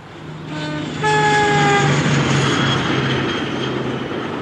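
A train bound for Lhasa rushes past with a loud, steady roar while its horn sounds a sustained, multi-toned blast for over a second. The rumbling continues after the horn stops, and no one speaks.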